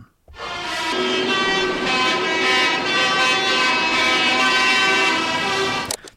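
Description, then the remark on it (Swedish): A dense, continuous chorus of tractor horns blaring together at once in Brussels as tractors arrive at a protest, many overlapping pitches held for several seconds, loud, honking in unison before cutting off abruptly. “Så här låter det i Bryssel, eller det lät så igår i alla fall, när traktorerna anlände,”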